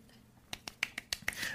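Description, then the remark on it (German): About seven quick hand claps in a loose, fairly even rhythm after a brief quiet start, crisp and sharp but rather soft, with no talking. “Und das Klatschen war nicht mal von dir?”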